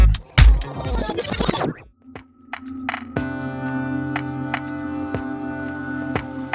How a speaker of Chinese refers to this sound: 现在大家听到的这段音乐，正是在特赞年会上，他们的员工通过收集公司里的声音，自己创造的曲子。